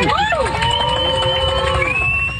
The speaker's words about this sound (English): Passengers on one flight applauding after learning that a judge in Florida threw out the federal mask mandate for planes, trains, and other forms of public transportation.